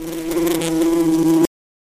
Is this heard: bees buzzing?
yes